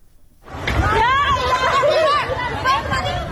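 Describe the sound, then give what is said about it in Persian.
A panicked crowd of flood victims in Dashtiari, Sistan and Baluchestan province, Iran: many loud overlapping voices break in after a short quiet moment and carry on without pause, with raised, strained tones rising above the babble. “این صدای وحشت مردم سیل زده دشتیاری است”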